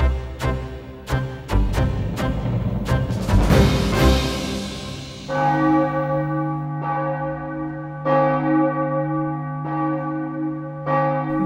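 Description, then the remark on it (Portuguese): Church bells of the Igreja da Misericórdia in Aveiro, a church building over three centuries old, ring out in a busy, overlapping peal at first, then settle into slower single strikes with long humming decays. Loud and resonant, with no voices. “sobram os sinos na Igreja da Misericórdia, em Aveiro.”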